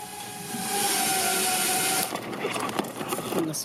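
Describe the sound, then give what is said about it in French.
A Wing delivery drone's rotors whir with a steady, high mechanical whine that holds for a couple of seconds, then breaks into a rougher, fluttering buzz as it approaches to unroll its cord and drop a package in a garden. “Un léger bruissement se fait entendre. Le drone est en approche, déroule son cordon et dépose le colis”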